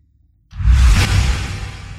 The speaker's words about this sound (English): Swoosh.